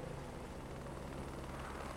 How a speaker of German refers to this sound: Um 1999 fliegt ein Helikopter in Richtung des Londoner Juwelendistrikts Hatton Garden. Auf dem Dach von De Beers ist ein Landeplatz markiert. Der Hubschrauber setzt auf.